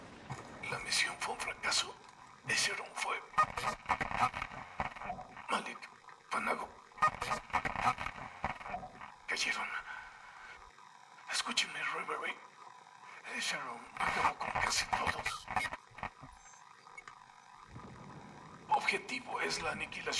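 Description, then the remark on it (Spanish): A garbled voice comes over a radio transmission, repeatedly breaking up with crackling interference, abrupt dropouts and bursts of static, the choppy signal fading in and out throughout. “transmisión de …, fragmentada por la interferencia, pero es suya sin duda”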